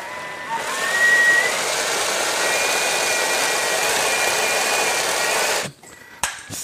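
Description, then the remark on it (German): A blender mixing hummus made from chickpeas whirs steadily for about five seconds, a loud, even motor roar with a faint high whine, then cuts off abruptly, followed by a couple of brief clicks. “So, jetzt noch einmal, einmal mixen”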